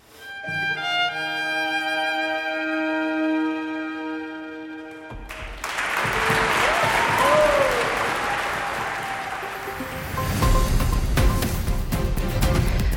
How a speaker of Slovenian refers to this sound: Poslušalci v razprodani kozinovi dvorani Slovenske filharmonije v Ljubljani so trud glasbenikov poplačali z glasnim aplauzom in vzkliki odobravanja.